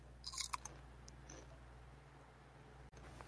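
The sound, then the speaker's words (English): Faint crunchy chewing on nuts by a person with an open microphone, a quick cluster of small crisp bites in the first second, then mostly quiet with a low steady hum underneath. “I don't know if I want to ch- listen to you chewing on, on nuts oh, or whatever you're eating.”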